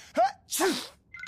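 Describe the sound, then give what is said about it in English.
A single sneeze: a short rising "ah" intake followed by a loud, breathy "choo" burst, then a faint brief high-pitched noise as it fades. “Gesundheit.”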